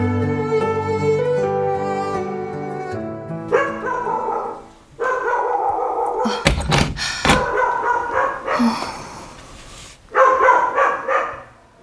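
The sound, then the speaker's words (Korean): A white dog barks and yelps several times, its calls loud and drawn out. A heavy thud lands midway, and a sustained musical tone plays at the start. “개가 짖기에 나가보니 하얀 개 한 마리가 있었다.”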